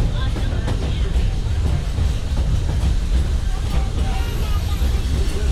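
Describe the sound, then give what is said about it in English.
A theme park train in the Magic Kingdom rolls steadily along the rails, a continuous heavy rumble with faint rhythmic clatter, fairly loud throughout, with a thin high whine appearing near the end. “As for me, I'll stay safe and sound right here aboard my train if you don't mind.”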